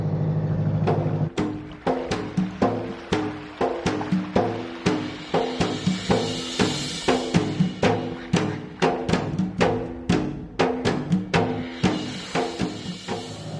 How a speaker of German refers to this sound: Ich kann nur mal hoffen, dass sie das gut versteht bei den vielen Außengeräuschen. Aber es ist auf jeden Fall ein Erlebnis, auf so einem Boot zu sein.